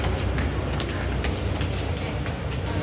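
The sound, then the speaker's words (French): A Paris metro train rumbles through an underground station, a loud steady roar of wheels and motor with sharp rhythmic clacks of the rails. “Parfois, surtout le matin, le métro il marche pas.”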